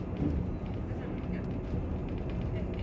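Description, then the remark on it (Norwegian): Steady low rumble of a moving bus interior, with indistinct murmuring voices in the background and a constant engine drone throughout. “her er teorien at du hører som sånn det er litt sånn du sitter på bussen, du lener deg inntil, du skal Du er kanskje på veien fra skolen, vært litt lenge.”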